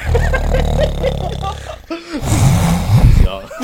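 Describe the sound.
A voice imitates snoring with loud, rough, throaty rasps, first a long drawn-out rumble, then after a brief pause a few shorter, choppy snorting bursts.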